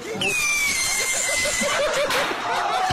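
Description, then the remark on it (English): A thin whistling screech from a bottle rocket, which a man tried to fire from his butt, glides slowly downward over a noisy crowd, then a sharp pop bursts out, followed by excited yelling and laughter from many people. “Listen for when the screech happens and then the pop and then the crowd reaction.”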